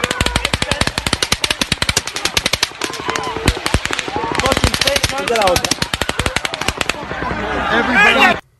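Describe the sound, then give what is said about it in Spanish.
Rapid rifle fire crackles in long, dense volleys with overlapping shots that suggest more than one gun, continuing almost nonstop, with faint voices shouting in the background. “Y puede darse el caso, puede darse el caso, como dice Alma, que el hombre en realidad esté disparando a dos manos, porque él se, la policía encontró más de 10 rifles en la habitación.”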